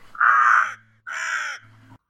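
A raven gives two loud, harsh caws, each lasting about half a second with a brief pause between them, followed by a faint low hum.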